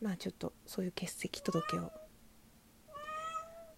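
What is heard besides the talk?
cat meowing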